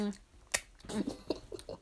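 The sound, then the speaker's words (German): Someone crunches on dry, uncooked noodles, producing a few sharp, irregular crackles and softer chewing sounds over about two seconds, with faint mouth noises in between. “falls ihr euch fragt, was wir gerade essen, Nudeln.”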